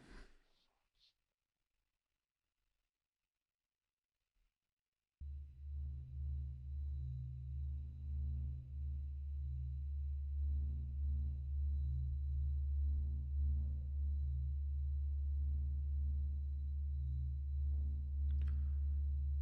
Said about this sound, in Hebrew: אותם נאסא הקליטו בעזרת אנטנות מיוחדות והמירה אותם לצלילים בטווח השמיעה שלנו. ככה שאנחנו ממש יכולים לשמוע את הצליל, אה, את הוויברציות, כי צליל זה ויברציה, אז בעצם אנחנו יכולים לשמוע את הצלילים של השמש, אה, וזה נשמע ככה.